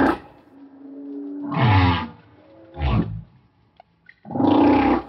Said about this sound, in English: that's the humpback whale. At its regular speed.